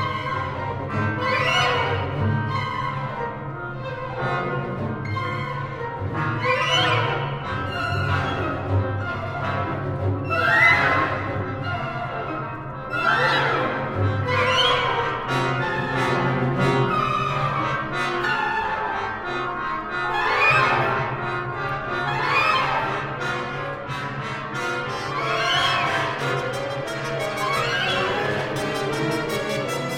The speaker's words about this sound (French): donc on entend euh, un groupe de trombones avec sourdine. Ils sont en deuxième plan, malgré le fait que euh, c'est eux qui, tiennent la phrase.